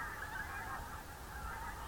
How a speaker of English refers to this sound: It's two o'clock in the morning, the 15th of February, and the air is full of geese. Hundreds and hundreds of geese. They must be getting ready to make their spring migration. It's extraordinary noise.